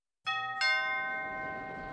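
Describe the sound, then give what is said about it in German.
A doorbell at von Drösel's flat in Brunnenhilde Straße 10 rings a clear two-note ding-dong, the second tone following quickly and ringing out with a slow fade. It is moderately loud, with no voices. “Bitte bei von Drösel klingeln und Schuhe ausziehen.”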